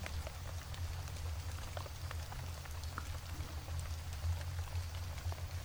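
Steady rain falls continuously in a city, a dense patter of drops with scattered sharper ticks over a low, constant rumble, even throughout with no voices.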